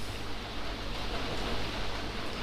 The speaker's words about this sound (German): Ich bin gerade ein bisschen abgelenkt von dem Regen.